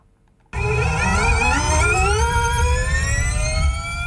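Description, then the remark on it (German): An electric Formula E race car, driven by Swiss racing driver Sebastian Buemi on the streets of Zürich between the station and ETH Zürich, starts abruptly with a loud, high-pitched whine that climbs steadily in pitch as it accelerates, over a rumbling low-end roar, with no voices. “Diesen Morgen ist der Schweizer Rennfahrer Sebastian Buemi aber in seinem Rennauto durch Zürich düst”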